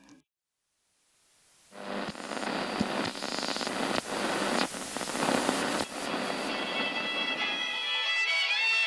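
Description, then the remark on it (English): After a brief moment of quiet, loud static hisses in from a radio that is now partly working as it is turned up, crackling and popping steadily, with faint tones starting to emerge through the noise toward the end as if a station is half tuned in. “then turns up the radio that's now working a bit”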